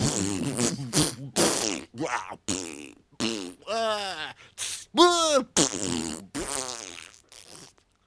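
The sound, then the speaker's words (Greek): A voice imitates a string of farts, a loud series of buzzy, sputtering bursts with short pauses between them, some rising and falling in pitch. “Μα έχει τρελάει το κλανίδι”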